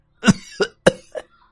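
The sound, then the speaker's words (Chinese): A rough coughing fit of four harsh bursts in quick succession, a man coughing up clots of blood, the first burst loudest and the last weaker and shorter, with no talking. “他又是一阵咳嗽，咳出几团血块。”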